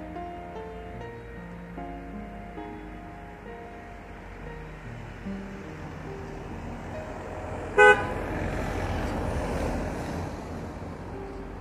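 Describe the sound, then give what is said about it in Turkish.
Car horns honk in traffic, several overlapping sustained tones at first, then one sharp, loud blast near the end, all over a steady rush of engine and wind noise. “Birbiriyle konuşan kornalar. Küfreden kornalar.”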